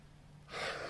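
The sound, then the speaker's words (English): A single loud, heavy breath drawn in sharply after a brief quiet moment, with no talking. “my heavy breathing is because I have come to a tentative conclusion.”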